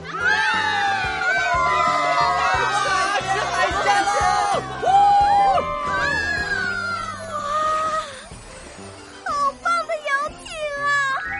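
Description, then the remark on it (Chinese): A group cheers loudly after being invited aboard a yacht for a seafood feast, many high-pitched voices whooping and shouting over one another in a sustained burst, then trailing off into a few shorter, separate whoops at the end. “” 大家对视了一眼，立马欢呼了起来。”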